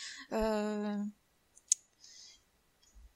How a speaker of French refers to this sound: excusez-moi je range un peu mon bordel là c'était les écouteurs du téléphone. Voilà sont mis en place, c'est bon.